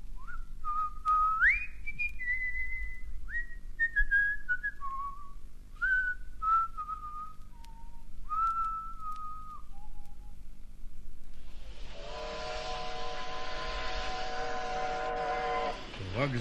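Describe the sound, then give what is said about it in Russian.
At a train station, a wavering, tune-like whistle rises and falls for several seconds, then a loud, sustained steam locomotive whistle blasts with a rushing hiss of steam behind it. “зал с его разноголосую сутолокою, грохотом приходящих поездов, свистками паровозов, то густыми и сердитыми,”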